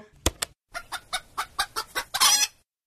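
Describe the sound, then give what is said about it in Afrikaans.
A hen clucks after laying an egg: two sharp clucks, a pause, then a steady run of about seven evenly spaced clucks ending in a louder, drawn-out squawk. “Jy kan luister na hoe 'n hen klink wat nou net 'n eier gelê het.”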